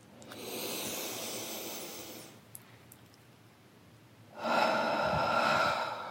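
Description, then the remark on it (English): A deep, airy inhale lasting a couple of seconds, a brief pause, then a louder, longer whooshing exhale, with no talking. “You know, while you're on here with me, just take a breath with me.”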